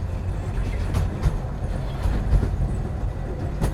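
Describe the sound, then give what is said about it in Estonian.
A train rolls along the rails with a steady, heavy low rumble, broken by irregular clacks and knocks from the wheels. The sound is continuous, with no one talking. “ja päev algaski siis äh, rongisõiduga.”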